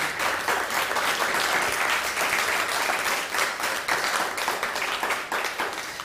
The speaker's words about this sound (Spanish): Saludamos a todo Estados Unidos, no, dimos aplauso a las naciones, a, a Estados Unidos un fuerte aplauso, a todo Estados Unidos.